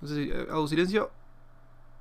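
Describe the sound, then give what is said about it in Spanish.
A steady, low whir of computer cooling fans, faint but constant, heard under a brief stretch of speech and then alone once the talking stops. “Tendría que calibrar un poco los ventiladores porque están sonando bastante la computadora.”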